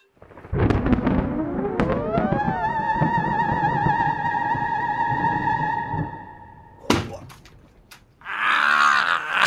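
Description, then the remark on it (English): A single loud thud of a knee knocking hard against a wooden chest under a desk, cutting through a sustained electronic tone that fades out, followed by a burst of voices. “That's me banging my knee on a chest What'd of records do?”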